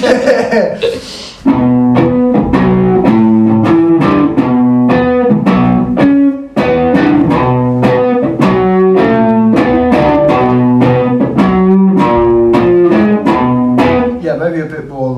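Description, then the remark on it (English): Harsh, atonal distorted noise from an effects unit, chopped into loud buzzy pulses that repeat in a steady, quick rhythm for the whole stretch, with no talking. “Any like feedback or anything like that, any distortion, I'm like, whoa, that's cool.”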